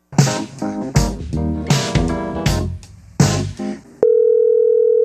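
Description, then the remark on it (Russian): A short burst of rhythmic music gives way to a steady, unbroken telephone dial tone of a call placed to discuss an art exhibition, a flat mid-pitched hum that holds at a constant level for the last second. “И мы с ней созвонились и обсудили выставку.”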